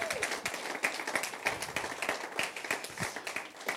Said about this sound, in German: Applaus für Jesus. Danke, Jesus.